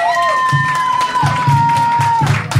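Loud, steady audience applause mixed with cheering, a long high-pitched whistle running through most of it, and some dull low thumps underneath.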